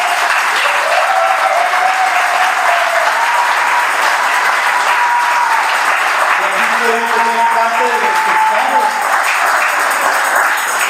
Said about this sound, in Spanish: Le puedo dar un aplauso a todos los que ayer vinieron al campamento de trabajo